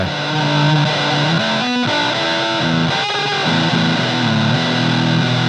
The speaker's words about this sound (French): Euh, je vois très bien comment utiliser ce genre de pédale pour faire de la synthwave, par exemple.